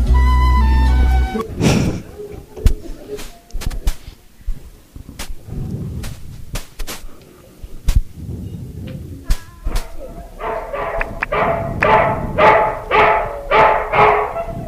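A dog barks repeatedly in quick succession near the end, a run of sharp, closely spaced barks following earlier scattered knocks and rustling background noise.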